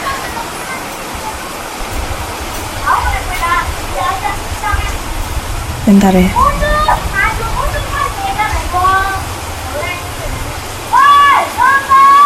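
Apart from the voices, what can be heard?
rain falling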